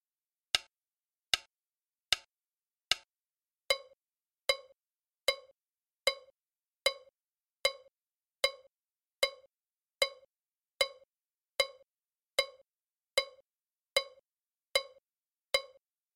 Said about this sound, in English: The heaviness of the two beat pulse is reinforced by the bell part which plays the pulse itself.